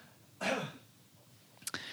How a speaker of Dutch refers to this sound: Dat was een, eh, een, hoest. Dat moet ook kunnen, vind ik wel. en dat is ook meteen het enige geluidseffect wat ik er vandaag ingooi.